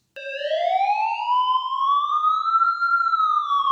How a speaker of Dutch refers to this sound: Wanneer we in onze wagen zitten en dit geluid horen, dan weten we dat we best plaats maken om de ziekenwagen voorbij te laten rijden.